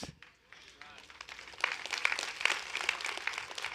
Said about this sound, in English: See, you can clap